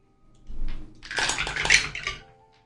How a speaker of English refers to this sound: No, it's rolling like. That's a lot of dice.